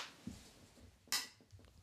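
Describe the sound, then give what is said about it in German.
A single sharp, bright clink of beer glasses rings out in a toast, with a few soft knocks and rustles around it and no talking. “Ja, ja dann äh, Prost. Prost, wir wissen ja, wie es klingt hier.”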